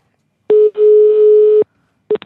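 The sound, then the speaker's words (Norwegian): A steady telephone ringing tone at one fixed pitch during a call to Kjell Marienlyst: a short beep, a brief gap, then a longer sustained tone of about a second, followed after a pause by the start of another short burst. “Uh, for eksempel forrige uke så ringte jeg Kjell Marienlyst, eller eller, det ble feil sagt.”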